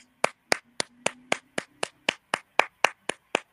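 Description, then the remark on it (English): About a dozen sharp hand claps in a steady, even rhythm, roughly four per second, each crisp and bright with no talking over them. “I made you organize. Round of applause.”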